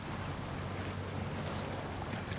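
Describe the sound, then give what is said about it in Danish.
A steady wash of water around a small boat in a harbor on the Golden Horn, with a low rumbling undertone and some wind, continuous, with no voices. “Du står nu tilbage på havnen ved din lille båd og kigger ud over vandet i det gyldne horn.”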